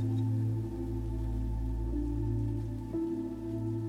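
Steady rain hisses softly throughout, blended with a low, sustained droning tone that swells gently. No voices, just a continuous, even wash of falling rain.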